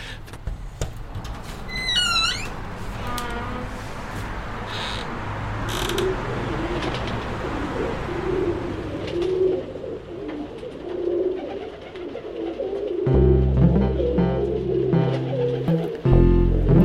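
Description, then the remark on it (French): Pigeons coo repeatedly in soft, throaty bursts at a workshop, with a brief high bird chirp early on and a low droning hum rising beneath them near the end. “Simon and the Pigeons, un podcast roucoulant”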